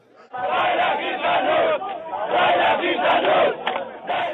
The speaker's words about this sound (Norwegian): Frihet ja, fengsel nei, roper disse afrikanerne. Sammen med dem står flere israelere, for immigrantene får støtte av israelere på venstresiden og av menneskerettighetsgrupper.